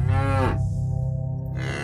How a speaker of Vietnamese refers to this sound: Tiếng bò ở ngoài chuồng vẫn còn giống lên từng hồi thảm thiết Tiếng động âm vang ngân dài trong đêm tối không khác gì những tiếng tù và gọi ma